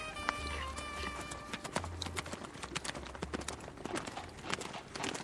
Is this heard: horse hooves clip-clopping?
yes